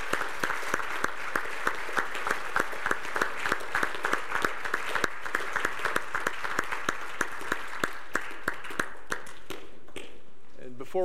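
A church audience claps steadily for around ten seconds for honored 20-year members, a dense patter of many hands that thins out and fades near the end.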